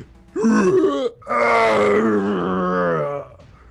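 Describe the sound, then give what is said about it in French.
A voice imitates a loud, anguished cry in two bursts as Brakis changes course mid-flight and crashes into a wall: a short wavering yelp, a brief gap, then a longer strained howl that slowly falls in pitch before cutting off. “vous voyez une grande explosion d'un verre nécrotique dans le ciel et vous voyez une, euh, la forme de Brachis qui pouf, change de course en plein milieu de son envol et vous entendez un grand cri”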